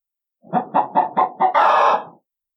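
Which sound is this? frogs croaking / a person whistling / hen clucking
hen clucking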